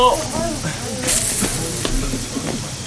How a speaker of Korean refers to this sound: 흰 방호복을 입은 직원들이 관을 옮기자 보건소 방역 요원 두 명이 그 동선을 졸졸 따라다니며 소독약을 뿌려댔다. 소독 중이니까 비켜주세요.